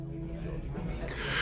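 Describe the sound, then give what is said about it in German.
A voiced intake builds for about a second, then breaks into a sudden, hissy, loud sneeze burst at the end. “Gesundheit.”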